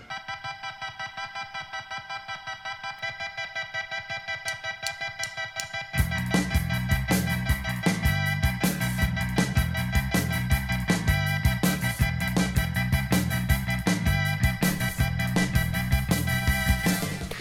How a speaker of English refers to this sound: As you're listening to the following music selections, adjust the volume, bass, and treble controls to suit your tastes.